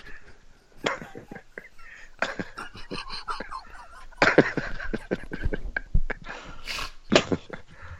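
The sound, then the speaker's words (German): A voice imitates a dog barking in a rapid, scrappy series of yaps and barks, fairly loud, with short gaps between bursts and no other talk. “Hund bellt da einfach vorne macht plopp.”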